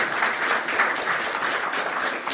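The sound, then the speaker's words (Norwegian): An audience claps steadily in a dense, continuous wash of applause that stays loud and even throughout, with no voices standing out. “Jeg syns det høres helt fantastisk ut, så det syns vi skal klappe for.”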